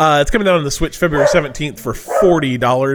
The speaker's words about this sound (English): That's my dog barking again because that's just what he does.